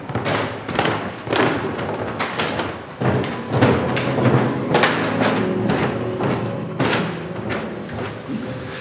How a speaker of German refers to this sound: Genau, die Tür ist auch ein sehr schönes Geräusch übrigens. Also, wenn sie dann auch zugeht.